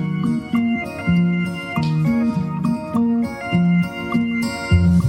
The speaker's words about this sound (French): …, c'est le titre de la chanson.